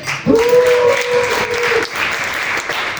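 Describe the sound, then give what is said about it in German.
An audience bursts into loud, dense applause for the technical crew that holds steady for about three seconds, with one long sustained cheer rising above the clapping during the first half. “Okay, wollen wir einen warmen Applaus für Technik?”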